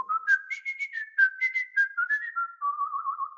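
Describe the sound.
A person whistles a short, lilting tune in imitation of the parakeets singing across the street in Venezuela, with quick rising and falling notes in a bouncy rhythm, clear, with no talking.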